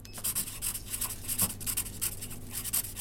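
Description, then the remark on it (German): A pen scratches across paper in quick, uneven strokes, fairly quiet, as someone signs a document while checking into a room, with a low steady hum underneath. “Gut, dann brauche ich hier einen äh, Fingerabdruck. Bitteschön. Danke. Und hier eine Unterschrift.”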